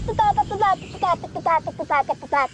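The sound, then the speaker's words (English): Someone vocally mimics the pumping dance beat of rave party music, chanting a steady run of short, punchy syllables in quick rhythm, fairly loud, with no instruments. “So you're going to get invited to some of these parties called raves. The music sounds like this.”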